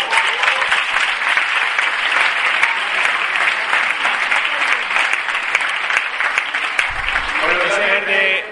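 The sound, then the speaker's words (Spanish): Loud, sustained audience applause for friends at a conference, a dense steady wash of many hands clapping that holds for about eight seconds, with a voice faintly emerging underneath near the end. “Vamos a un fuerte aplauso a nuestros amigos.”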